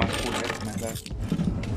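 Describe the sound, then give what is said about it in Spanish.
Metal keys jingle and clatter for a couple of seconds in a bright burst of clinking, with a brief lull midway before the rattling picks up again. “Ahí te encargo tus llaves.”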